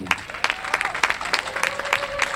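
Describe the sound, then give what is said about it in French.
A crowd at Roland-Garros claps warmly and steadily for Inès Reg at the close of the Star 7 et Match event, a dense patter of many hands with sharp individual claps standing out, sustained throughout with a faint tonal whistle or hum running underneath. “Je vous demande de faire un chaleureux applaudissement pour Inès Reg.”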